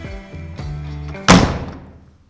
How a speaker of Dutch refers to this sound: Zware deur.